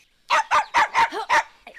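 A small dog, Fifi, slipping through the bars of a safety gate toward the street, barks five times in quick, evenly spaced succession, each yap short, sharp and fairly high-pitched, with a faint sixth bark starting at the end and no voices.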